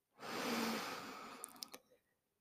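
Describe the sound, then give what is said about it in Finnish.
A single long, deep breath drawn in through the nose, a steady airy rush lasting well over a second, clear, ending with a few small sniffly catches. No talking. “Muuten mä hengittelen, pyrin hengittämään aina nenän kautta, mutta – näissä hetkissä syvä sisäänhengitys nenän kautta.”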